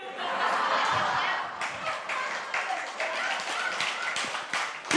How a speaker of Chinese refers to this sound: 可是不知道为什么大家拍手，没有这件事情，好像也不是什么好事。